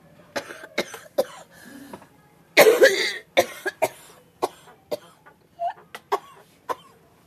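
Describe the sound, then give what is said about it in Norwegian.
A prolonged, harsh whooping-cough fit from a teacher at a school in Åsnes, Norway, in her seventh week of coughing: a rapid string of hacking coughs with a loud, strained burst in the middle, then more gasping coughs trailing off, with no talking. “Ja, du blir satt ut akkurat idet det hosteanfallet kommer.”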